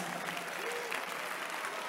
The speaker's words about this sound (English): Give the Lord a clap of it.